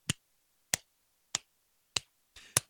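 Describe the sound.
Five sharp claps in a steady, evenly spaced rhythm, each a crisp isolated smack with silence between, the last preceded by a brief rustle, demonstrating how kids in an audience clapped along to a song.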